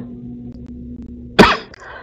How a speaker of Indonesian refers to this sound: Masya Allah Alhamdulillah sudah ya batuk-batuk ya batuk-batuk cuaca hujan terus